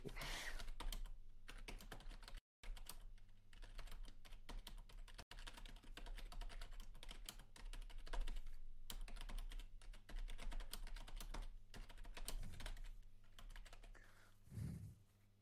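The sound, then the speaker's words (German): Steady, rapid clicking of keys on a computer keyboard, continuous for the whole stretch, with only a couple of brief pauses and no one speaking. “So, jetzt lädt das, das Textdokument.”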